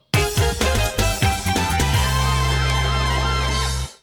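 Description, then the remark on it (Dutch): A short version of a sports TV theme tune, a modern remake of the original, punchy and orchestral-electronic, with booming drum hits in the opening second and a half, then a sustained loud chord with deep bass until it cuts off cleanly. “En toen werd de, tune de versie van de tune geïntroduceerd die we vandaag de dag kennen.”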